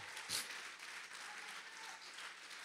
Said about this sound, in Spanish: Sí, dale más fuerte ese aplauso.